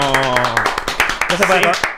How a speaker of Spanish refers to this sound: Aplauso para el tipo.